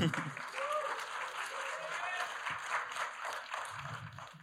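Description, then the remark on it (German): An audience gives itself a small round of applause, a dense wash of many hands clapping that holds fairly even in loudness throughout, with a few voices calling out over it. “Äh, kleinen Applaus für euch selbst dafür.”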